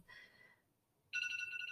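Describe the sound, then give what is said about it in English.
A phone alarm chimes with a bright, high-pitched electronic tone, pauses briefly, then returns louder as a steady pulsing ringtone pattern. No one speaks over it. “Oh, why is my alarm going off?”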